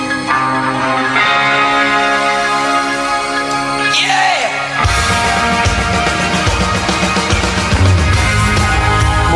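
A loud, full rock song plays on its own, with sustained chords and a sweeping transition before a steady drum beat kicks in, giving it a bright, festive holiday feel.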